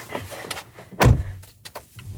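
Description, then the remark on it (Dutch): A car door shuts with a single solid, low thump as people get into the car to drive to Nieuwegein, preceded by faint rustling and shuffling as someone settles in, then quiet interior rumble afterward. “Samen stappen we dus in de auto op naar Nieuwegein.”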